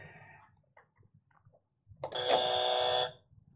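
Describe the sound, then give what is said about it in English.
A loud, harsh game show buzzer blares once for about a second, a dense rasping tone, as it is tested before a quiz, following a few faint soft clicks and low background noise. “First of all, let's test out the buzzer.”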